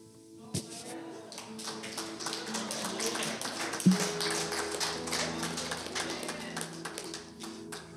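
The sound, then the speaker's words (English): An audience at a prayer gathering claps steadily and loudly for several seconds, many hands overlapping into a dense patter, with sustained musical tones, like an organ or keyboard, playing underneath. “Put your hands together.”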